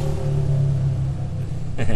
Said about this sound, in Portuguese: Olha a moto, olha a moto.